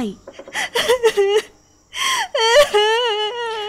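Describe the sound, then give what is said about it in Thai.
A woman's voice sobs in short, catching bursts, pauses for a gasping breath, then breaks into a long, wavering wail, weeping with her head bowed. The crying is loud and theatrical, clearly performed. “เจ้าชายได้ไต่ต้นไม้ลงมาอย่างเงียบๆได้เอามือจับหล่อนอย่างนุ่มนวลจนหล่อนไม่รู้สึกว่าได้ถูกพาขึ้นไปอยู่บนต้นไม้ด้วยความที่เอาแต่ก้มหน้าร้องไห้”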